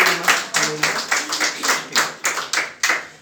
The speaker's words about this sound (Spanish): Por favor, un aplauso, regálele, por favor.